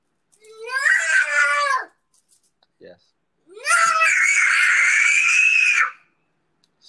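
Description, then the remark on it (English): A child lets out two loud, high-pitched screams, the first about a second and a half long, the second longer and sustained, with a brief pause between them. “Stop yelling. Don't do it again.”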